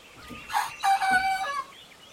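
A chicken crows once, loud, a strained rising call that breaks into a long harmonic cry before trailing off, with no one speaking.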